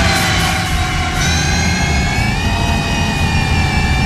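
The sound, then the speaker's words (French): A loud, steady electric motor whine from an electric motorcycle, with layered high-pitched tones that drift slightly in pitch, riding over a constant low rumble. There is no talking. “Écoutez le bruit du moteur que j'ai chopé sur YouTube comme ça vite fait.”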